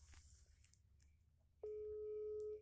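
After a moment of faint rustling and low background hum, a loud, steady telephone tone starts abruptly and holds unbroken until the end, like a line ringing before the call connects.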